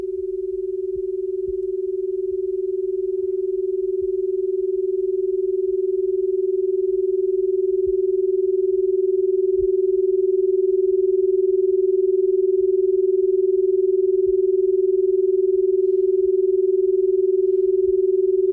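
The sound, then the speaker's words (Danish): A steady, sustained healing tone hums evenly for the whole stretch, a smooth pure pitch that swells slightly louder at the start and then holds, with no voices over it. “Så nu tilbyder vi altså øh, lydhealing direkte i radioen.”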